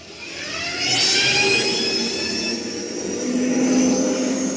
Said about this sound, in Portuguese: O Carter consegue terminar o conserto e vocês escutam os motores da nave sendo acionados